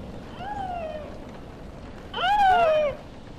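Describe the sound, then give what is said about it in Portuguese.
A recorded baby seal, recorded in the Magdalen Islands, Canada, calls twice, a softer drawn-out cry followed by a louder, wavering bleat that falls in pitch, played from what seems to be a soft white plush toy on a round table in a therapy room at Casa de Saúde da Idanha as it rains outside, with faint background hiss. “É a voz de uma foca bebê gravada nas Ilhas Madalena, no Canadá.”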